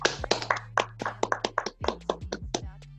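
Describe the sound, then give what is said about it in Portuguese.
A small group claps for about three seconds to welcome a guest, a dense run of sharp, uneven hand claps, with a low steady hum underneath and no talking. “Salve de palmas.”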